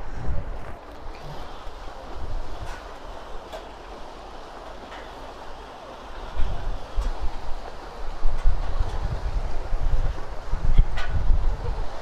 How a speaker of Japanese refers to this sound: あでもやっぱ海側は海風があるねわ今本当に海岸沿いというか、うん、海沿いだね